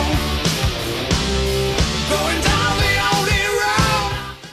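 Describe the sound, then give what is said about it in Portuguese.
A loud hard rock passage with a raw, high-pitched yelled vocal soaring over pounding drums and distorted guitars, sustained at full volume before cutting off abruptly at the end. “que bonito esse berro, hein?”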